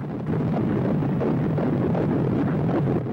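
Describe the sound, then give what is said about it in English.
The heartbeat of an unborn baby just 28 days after conception, picked up through a monitor: a muffled, steady whooshing rumble that fills the few seconds on its own, fairly loud, with no voices. “You are listening to the sound of the heartbeat of an unborn baby just 28 days after conception.”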